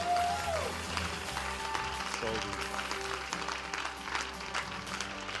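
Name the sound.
crowd cheering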